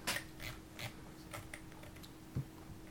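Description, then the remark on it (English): Soft, irregular clicks of typing on a computer keyboard as someone searches for an album, a handful of scattered keystrokes over a steady low electrical hum, fairly quiet, with no one speaking. “Ooh, curious typing.”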